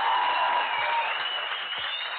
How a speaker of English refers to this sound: I just want to say, first of all, round of applause for my people who really rock with us.